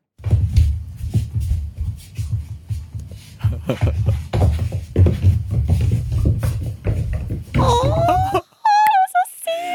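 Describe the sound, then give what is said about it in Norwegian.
A goat kid named Muffins dances over the kitchen floor, its hooves pattering and skittering in quick, irregular taps across smooth parquet, followed by a few high, wavering bleats near the end, with laughter mixed in. “Og det høres ut som er det, er det, litt sånn klover som rett og slett spinner på glatt parkett?”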